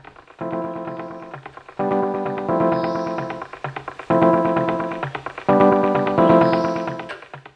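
A looping drum-style beat built from tree branch samples played on a keyboard: crisp woody taps and knocks with ringing pitched tones, repeating in a steady rhythmic pattern, fairly loud, with no voices.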